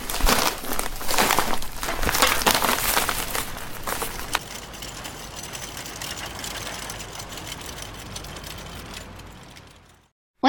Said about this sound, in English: And I am going to put my groceries away.